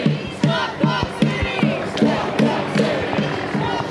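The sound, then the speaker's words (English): A large crowd chants in a steady, rhythmic cadence, many voices shouting repeated syllables together at a loud, insistent level, with the dense murmur of a marching group beneath the chant. “There's a few hundred people in camo block walking down, I believe, is uh, Constitution.”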